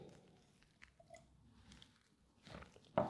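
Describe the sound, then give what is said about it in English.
A quick sip from a cup of coffee, with soft wet mouth sounds and a short slurp near the end, followed by a small click; no one speaks. “So I'll have my last little sip of coffee and I should be good.”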